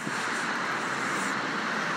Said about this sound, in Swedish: Nu är jag nästan påkörd av en jävla bil. Den jäveln skulle man göra en citizens arrest på, men nu hinner jag inte springa ikapp.